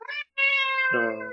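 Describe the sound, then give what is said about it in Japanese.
A house cat meows loudly, pestering for attention: a short chirp, a brief pause, then a long drawn-out meow that slides down in pitch at the end. No one speaks. “猫が鳴いておりますが。”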